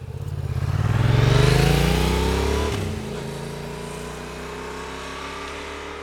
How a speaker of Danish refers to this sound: Så hvis det ikke lige er tale, men er sådan noget drive-by, motorcykel kører forbi, øh, lyd fra byen, et eller andet, jamen, så vil den opfange det.